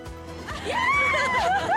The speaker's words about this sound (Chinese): 少女兴奋尖叫，因为千叶县的迪士尼乐园安排了成年礼活动，要祝贺许多少男少女正式登短廊。米奇米妮到台下和大家一起又唱又跳。